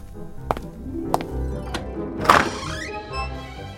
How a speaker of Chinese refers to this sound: 罗宾汉吸了一口气，勉强忍住笑，正想伸手去够门把，却听见厅堂方向传来沉重的脚步声。